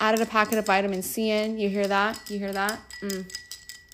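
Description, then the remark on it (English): A metal straw stirs ice in a glass of vitamin C ice water, making light, irregular clinks and rattles that run faintly beneath a person talking and stand out a little more in the pauses. “That's the sound of my metal straw stirring this vitamin C with ice in it.”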